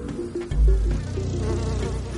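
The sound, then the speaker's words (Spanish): A dense, steady buzzing of dozens of flies swarming around a dead woman's body covered with a blanket beside a small wooden shed. It is a continuous droning hum with a low rumble that swells briefly near the start and then holds. “Decenas de moscas revolotean alrededor del cuerpo.”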